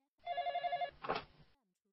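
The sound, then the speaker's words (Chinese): A telephone on a bedside table rings once at about three in the morning, a bright warbling trill lasting under a second, followed by a short muffled clatter like the handset being lifted. No voices. “我抹了一把额头的冷汗，伸出手在床头柜上摸了几把，找到电话听筒，拿了起来。”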